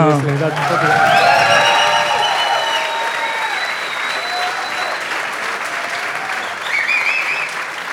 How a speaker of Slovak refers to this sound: To si zaslúži ešte teraz potlesk.